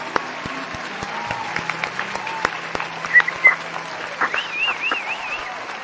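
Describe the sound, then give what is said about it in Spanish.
Steady applause from a group celebrating that the whole crew is together again, a dense wash of clapping that holds for about six seconds, with a few louder claps and a brief warbling whistle toward the end. “Es una ocasión especial porque a pesar de los problemas, de las vicisitudes y de las fuerzas de causa mayor, está de nuevo todo el crew completo, muchachos, y eso merece, por supuesto, un buen aplauso, ¿va?”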